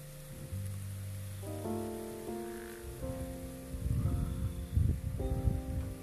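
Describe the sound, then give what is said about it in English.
Soft rustling of leaves stirred by a light breeze in the hills of Yaoundé, growing busier midway, layered under gentle sustained musical chords that shift slowly throughout. “And um, there is a sweet, subtle breeze blowing as you can hear the leaves making the sound.”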